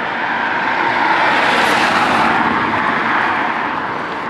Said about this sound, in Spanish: Uy, cuidado con el coche. Dejamos pasar.